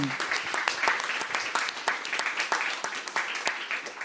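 An audience applauds to welcome a guest speaker, with dense, steady clapping that stays fairly even in loudness throughout, a crisp crackle of many hands with sharp individual claps standing out.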